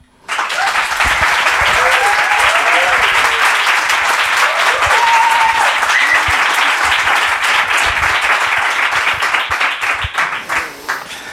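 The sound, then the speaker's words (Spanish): Sustained applause from the live audience of the show Headbanger, the audience's first applause of the year, a dense wash of many hands clapping for about ten seconds, steady and loud before tapering slightly at the end, with faint voices and cheers mixed in. “Este es el primer aplauso del público de este año en la luna.”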